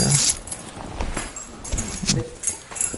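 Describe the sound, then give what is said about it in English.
Irregular metallic jingling and clinking, like a bunch of keys being shuffled in a hand, with bright rattles in several short bursts over a few seconds and no talking. “I'm sorry, I have some keys here.”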